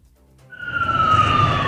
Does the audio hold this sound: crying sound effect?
no